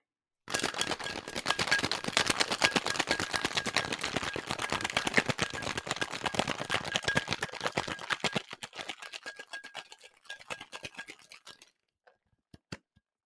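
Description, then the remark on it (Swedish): A cocktail shaker holding ice and a cocktail of infused vodka, chartreuse and lime juice rattles hard, a dense, fast clatter of sharp hits that keeps up for about eight seconds, then thins and stops, followed by a few isolated clicks. “Då kör vi lite skak-ASMR idag.”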